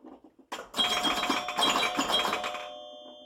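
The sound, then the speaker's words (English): Rapid electronic bells and chiming tones of a pinball machine ring out loudly over a clattering mechanical rattle, busy and continuous for a couple of seconds before fading into a sustained ringing tone. “It's joy and happiness and one of my most favorite things in the world, which is pinball.”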